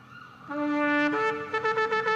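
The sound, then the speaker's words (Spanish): A shofar sounds the teruah alarm call: a brassy held note steps up in pitch, then breaks into a rapid run of short, staccato blasts, loud with no voices. “hay un llamado particular de este instrumento, el shofar, llamado terua, que era el, el sonido de alarma.”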